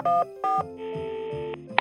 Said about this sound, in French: Maurice saisit le téléphone et composa le premier numéro